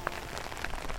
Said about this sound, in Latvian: Ārā līņā lietus.